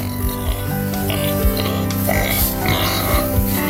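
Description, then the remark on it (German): Newborn piglets at the Tierpark Hellerbrunn zoo, fourteen born to two sows, grunt and oink in a busy, overlapping chorus, short snorty bursts following one another closely and loudly throughout, with no clear pauses between them. “Unsere Lieblinge sind diese Woche mini klein, haben Rüssel und klingen so ähnlich wie ihr Partner in der Nacht.”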